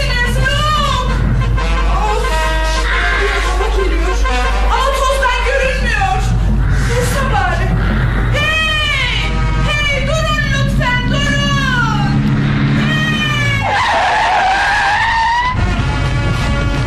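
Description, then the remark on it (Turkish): A car engine roars and whines through rising and falling pitch sweeps, with bursts of screeching tires, as the vehicle speeds away into the distance in a loud, continuous run. “Aa, hızla uzaklaşan bir araba var uzakta.”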